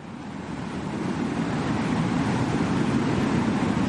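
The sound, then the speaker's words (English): A steady rush of wind swells over the first second, then holds as a loud, broad roar with a deep rumbling low end. No voices, just the wind throughout. “Maybe like a gust of wind, like that. Yeah, that might work. I might include a gust of wind.”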